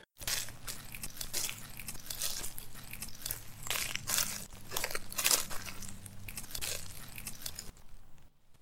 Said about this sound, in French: Donc je continue à enregistrer, j'ai le casque sur les oreilles et je l'entends marcher dans les feuilles.